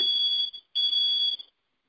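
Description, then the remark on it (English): Two loud, high-pitched electronic beeps from a timer alarm signalling that a speaker's time is up, each lasting over half a second with a brief gap between them, with no talking. “The timer says I'm done.”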